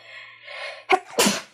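A single sneeze: a brief sharp intake followed by an explosive, breathy burst that quickly fades, with no talking.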